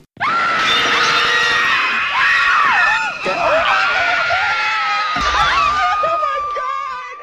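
A woman lets out a long, loud, sustained scream lasting several seconds, her high-pitched voice wavering and breaking as it goes before trailing off.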